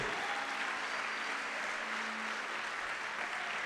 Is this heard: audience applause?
yes